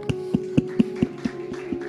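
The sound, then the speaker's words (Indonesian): A church audience in Indonesia claps hands in a steady, even rhythm, about four sharp claps per second, over a low constant hum, applauding the church's counseling department; no one speaks. “Tepuk tangan.”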